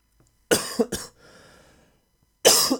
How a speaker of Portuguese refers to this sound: esta tosse é um bocado um bocado muito irritante.